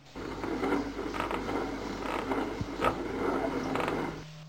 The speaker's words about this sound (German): den Kran des Bootes ein bisschen zu bedienen, dann kommt diese, lässt die Kurbel ein bisschen Seil und einen Haken herab.